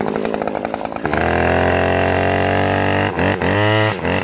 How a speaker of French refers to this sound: Je, te je, démarre juste la tronçonneuse et je te laisse le couper.